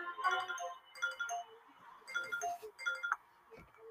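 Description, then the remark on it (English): A melodic electronic phone ringtone plays in short repeating bursts of bright, warbling tones, steady and moderately loud, with no voices over it. “I double dare you to leave the phone at the”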